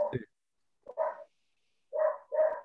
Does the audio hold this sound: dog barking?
yes